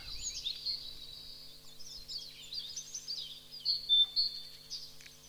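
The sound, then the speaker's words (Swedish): Great tit song with repeated two-syllable phrases, high and fairly faint, over a steady low hum and a busy wash of other small chirps in the background. “Och den där förändringen som har skett av talgoxens läte från ti-ti-ti till ti-ti-ti-ti-ti det säger man är, beror på det ökade trafikbullret i våra tätorter och våra samhällen.”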